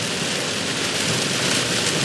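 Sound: sudden heavy rain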